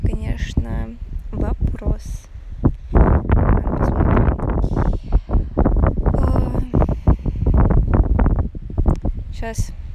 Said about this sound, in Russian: Блин, ну вот что с ветром будет делать,